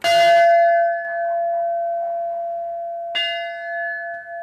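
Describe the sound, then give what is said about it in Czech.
A large bell is struck twice, a few seconds apart, each strike ringing out loudly with a long, sustained metallic hum that lingers between the strokes, rung for a birthday on a street by a kindergarten. No voices are heard. “tak jsem zbudila celou ulici u školky, neb jsem si dovolila zazvonit na tvůj nádherný zvon u příležitosti tvých narozenin.”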